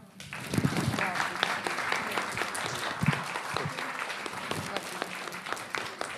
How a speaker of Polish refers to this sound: Myślę, że brawa.